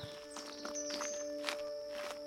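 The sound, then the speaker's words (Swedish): Footsteps of three walking across a wet yard up to a cottage after unpacking the car, near midnight, at an unhurried, slightly uneven pace. Each step is a soft scuffing crunch, quiet, over a steady background hum. “När vi packat ur bilen gick vi alla tre över tomten upp till stugan.”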